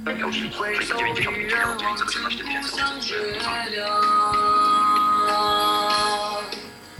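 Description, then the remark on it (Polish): An iPhone ringtone for an incoming call plays its melodic tune at a volume lowered by picking the phone up, ringing steadily for several seconds with sustained bright tones and no one talking over it. “I dzwonek się cisza.”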